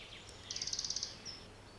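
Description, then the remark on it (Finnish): A red-breasted flycatcher's dry warning rattle: a quick series of about ten high, clicking notes in an even burst, fairly faint over a steady low background hum, with a brief thin note after. “Tällöin varoittava rätinä tulee kyllä tutuksi, jos sattuu liikkumaan alueella.”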